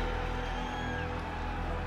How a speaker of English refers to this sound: Now the pressure on the kicker moves to the other side of the field. Now it goes to O'Donoghue. This crowd, everybody on their feet screaming.